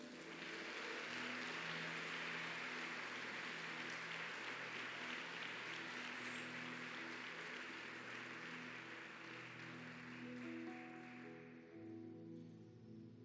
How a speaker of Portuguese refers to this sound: Quem pode aplaudir o Senhor?